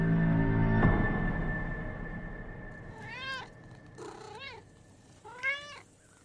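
A new pet cat named Homer meows three times in a row, short rising-and-falling cries spaced about a second apart, over a low rumbling background noise with no talking.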